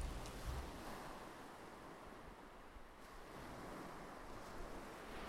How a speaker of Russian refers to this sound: Теплая вода осторожно касается белого песка и возвращается обратно.